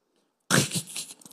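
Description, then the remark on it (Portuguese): After a short silence, a voice abruptly blurts out a harsh, hissing, crackly burst imitating something shattering, which trails off raggedly over about a second. Fairly loud. “Isso é um barulho de coisa quebrando.”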